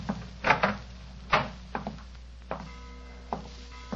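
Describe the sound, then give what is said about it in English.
A wooden door leading to a bedroom is handled and pushed open: a series of hollow knocks and thuds, followed by a faint creak, with no one speaking. “Where does this door lead to?”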